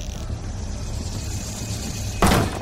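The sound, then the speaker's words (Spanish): Over a low, steady room hum, a door opens near the end with a short, loud scraping rush of noise as someone who has knocked lets themselves in. No one speaks. “dejaste la puerta abierta”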